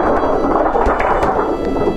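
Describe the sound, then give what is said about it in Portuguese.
A rumbling, crackling storm effect for a radio drama, made by shaking a thin x-ray sheet in the distance: a loud, continuous wash of thunder-like noise with sharp rattling bursts throughout, with no voices present. “A distância, o som de tempestade simulado por uma chapa de raio-x chacoalhada.”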